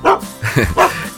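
A dog named Altai barks three times in greeting in quick succession, fairly loud, each bark short and sharp with brief pauses between, with no talking.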